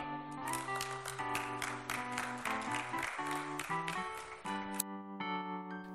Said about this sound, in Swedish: En applåd. Tack.